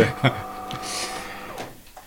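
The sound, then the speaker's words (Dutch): A coffee machine runs with a steady mechanical whir and airy hiss, then switches itself off and goes quiet near the end; a brief faint voice-like burst comes early. “Het is de, koffiemachine, jongens.”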